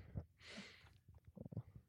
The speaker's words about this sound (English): No, that's okay. Take your sip. Do whatever.